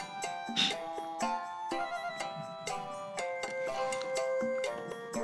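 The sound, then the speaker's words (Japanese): Soft self-made background music track of bright, plinking keyboard-like notes moving in a steady rhythm with sustained tones underneath, playing quietly on its own with no voices. “今毎日その音楽をこれのこの無駄話の裏に流れてる BGM を毎回作ってるんですけど”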